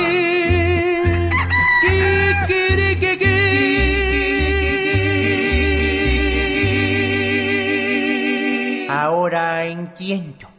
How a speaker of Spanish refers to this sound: A ver si con el gallo se despierta. Kikirikiki.